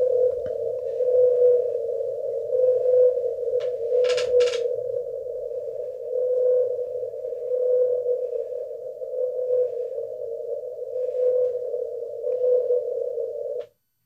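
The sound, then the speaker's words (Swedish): A replayed recording of a lone whale's call plays back as one long, steady, low tonal drone that barely wavers for the whole stretch, interrupted once by a short crackling burst, with no voices over it. “Men äh, den här ensamma valen”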